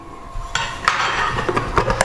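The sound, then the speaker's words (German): Metal cutlery clinks and scrapes against a plate of leftover rouladen reheated in a microwave, in a quick, irregular series of sharp taps, with no one talking. “Jetzt habe ich hier meine Rouladen.”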